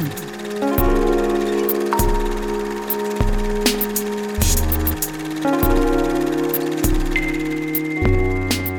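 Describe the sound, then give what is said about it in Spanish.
A short instrumental jingle (cortinilla) for the radio show Ruido de Fondo, leading into its film and series section Ruido Cámara Acción. It plays loud, with sustained synth chords shifting every second or so over crisp, regular percussive hits, and no one talking. “Ya regresamos aquí a Ruido de Fondo después de la cortinilla, así que vamos con la sección de Ruido Cámara Acción.”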